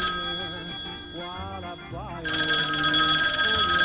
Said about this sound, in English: The phone's ringing.